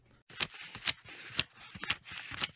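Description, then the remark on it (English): Paper money being riffled, a run of crisp, papery flutters in quick repeated bursts for a couple of seconds, with no voices. “That's the sound of money.”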